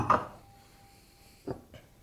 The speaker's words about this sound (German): So, dann tun wir das dritte Glas weg.